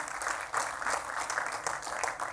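An audience applauds steadily, a dense crackle of many hands clapping at an even, sustained loudness with no voices standing out.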